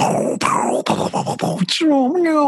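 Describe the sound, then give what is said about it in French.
A voice imitates dying groans: a series of strained, broken moaning bursts, then a drawn-out wavering wail that rises and falls in pitch, loud and alone. “et des gens qui meurent, mais je ne sais pas bien faire les bruits des gens qui meurent.”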